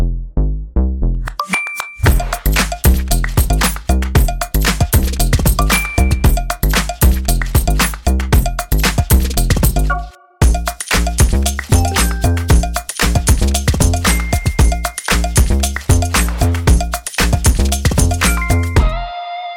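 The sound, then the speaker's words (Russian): A bright, upbeat musical jingle with steady rhythmic beats and ringing bell-like chimes, loud and continuous, with a brief pause midway before the tune resumes; no voices. “Об этом мы поговорим буквально через пару минут, а пока джингл.”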